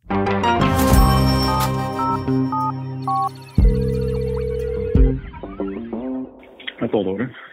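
A telephone rings for a weekly phone call to Paul Doren, amid a busy, synthetic electronic soundscape, with short repeated beeps and sustained tones. The sounds are fairly loud, and the effect ends abruptly after several seconds.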